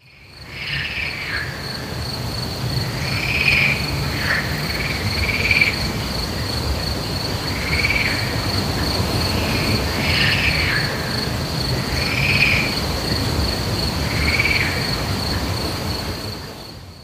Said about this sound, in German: Also es ist ganz klar ein Teich oder ein See. Es sind ganz klar ein paar Vögel und Grillen, die zwitschern und auf jeden Fall sitzt da auch eine Kröte irgendwo auf so einem Blatt.